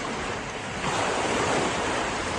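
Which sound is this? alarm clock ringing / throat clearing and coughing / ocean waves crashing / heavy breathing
ocean waves crashing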